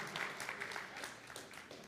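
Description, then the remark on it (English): A crowd claps steadily, a dense patter of many hands from an audience at moderate loudness, sustained for a couple of seconds with no clear pause, applauding a thrown pen during a talk. “Okay, you know, don't clap. Like it wasn't it wasn't that big.”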